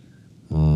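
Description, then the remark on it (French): After a moment of quiet rustling, a strange, buzzy whistling wheeze suddenly starts up, loud, a steady droning tone carried on a single breath, made by a person who is breathing with difficulty. “je sais pas si vous entendez, mais quand je respire, ça fait un sifflement bizarre, là.”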